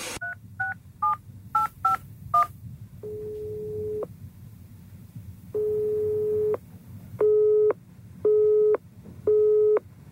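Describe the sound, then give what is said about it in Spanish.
A quick run of about seven touch-tone dialing beeps, followed by a long tone and then repeated steady busy-signal tones pulsing at a regular rhythm over a faint background hiss, as a phone call is placed to the press chief of candidate Rueda during a Galician regional election campaign. “Durante dos semanas intentamos ponernos en contacto con el jefe de prensa del candidato Rueda.”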